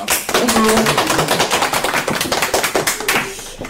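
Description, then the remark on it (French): Audience applause welcoming the troupe L'élan artistique, a dense, steady patter of many hands clapping at once, fairly loud and sustained for several seconds, with a brief murmur of voices near the start. “Il s'agit de l'élan artistique qu'on peut applaudir.”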